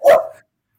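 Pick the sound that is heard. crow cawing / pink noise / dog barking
dog barking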